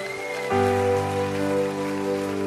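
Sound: audience applause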